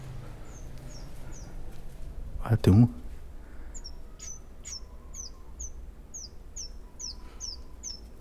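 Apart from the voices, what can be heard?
small birds chirping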